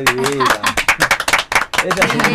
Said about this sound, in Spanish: Un aplauso para el café.